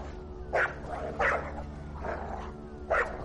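dog growling and barking

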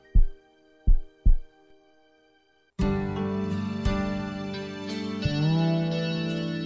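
heartbeat sound effect

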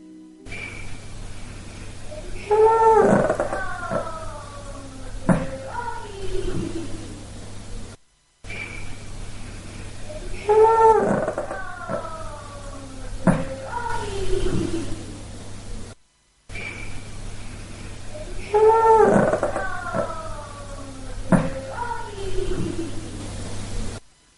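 small dog growling

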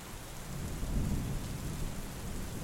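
rain falling

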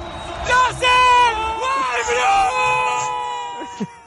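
people screaming and shouting

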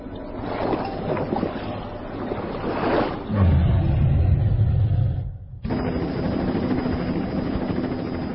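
helicopter arriving

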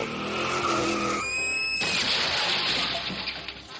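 car tires skidding

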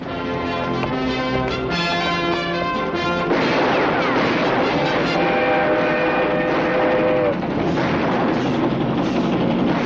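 train arriving

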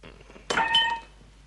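glasses clinking

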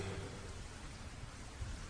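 rain falling

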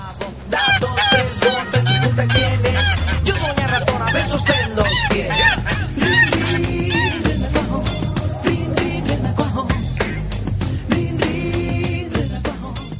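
goose honking

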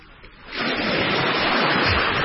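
ocean waves sound effect

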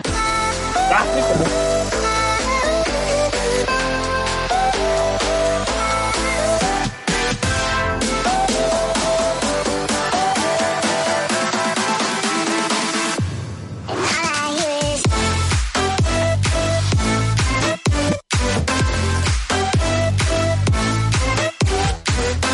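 electronic dance music track

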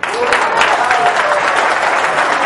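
audience applause

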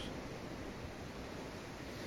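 sea waves

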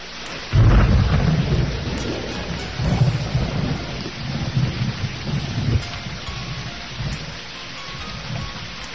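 thunderstorm with heavy rain

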